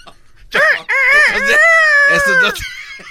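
A rooster, Vicente's rooster in a comedy sketch, crows once loudly: a few short rising notes, then a long, sustained, wavering cry that drops off sharply at the end.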